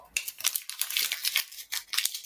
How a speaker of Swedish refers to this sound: jag får skrynkla ihop den och kasta den och det blir så på riktigt.